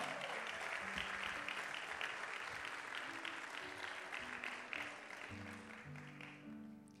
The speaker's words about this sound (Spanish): Vamos, si tú lo crees, dale un aplauso fuerte. Come on.